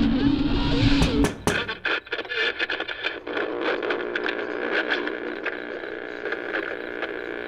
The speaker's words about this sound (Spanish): Unos golpecitos en la ventanilla de mi coche me sobresaltaron. Y cuando abrí los ojos, había luz a mi alrededor y un hombre de pie junto a mi ventanilla sosteniendo una linterna.